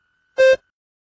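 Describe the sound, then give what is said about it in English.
A single short electronic beep signalling the start of a spoken response, about a quarter second long, clear and loud with a buzzy, harmonic-rich tone, standing alone in silence. “Begin speaking after the beep.”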